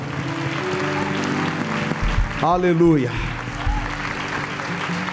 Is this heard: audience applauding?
yes